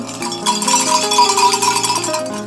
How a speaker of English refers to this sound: My bells are ringing.